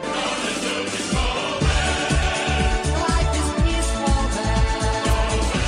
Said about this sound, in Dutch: dat was dit nummer uit 1993.